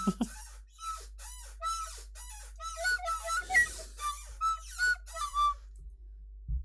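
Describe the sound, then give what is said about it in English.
A squeaky chair creaks over and over, roughly ten shrill, whiny squeals in a steady rocking rhythm, fairly loud, with no talking. “my fucking squeaky chair. Do you hear that? Is that the chair?”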